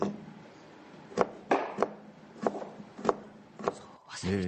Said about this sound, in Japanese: で実際包丁入れてみると、うん、人参よりちょっと硬いかなっていう感じの硬さなんですね。ザクザク歯ごたえが良さそうまずは輪切りにして、うん、そして次は細切りです。